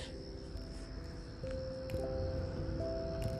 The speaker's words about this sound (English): Can you hear the crickets? That's probably, yeah. You can probably hear the crickets. I'm outside, obviously.